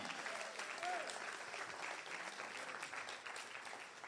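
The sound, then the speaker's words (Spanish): An audience applauds the Lord steadily for about four seconds, a dense, even wash of many hands clapping with no breaks, the sound holding loud throughout before easing slightly at the end. “Si, gloria, denle un aplauso al Señor.”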